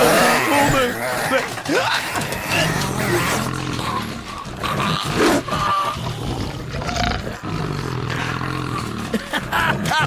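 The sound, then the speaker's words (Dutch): A pack of 16 dogs from a kennel, let loose into a bedroom, erupts in a loud, chaotic chorus of barking, yelping and howling that runs nonstop, with human voices mixed into the din. “En waar hebben wij hier deze 16 boefjes vandaan? Bij het kennel van Bergrijk. Ik zou zeggen, jongens, laat ze maar los.”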